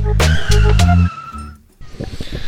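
A deep, throaty V8 engine revs hard in a few quick bursts, loud, with a high tire-like squeal riding over it, then cuts off briefly before rumbling noise resumes.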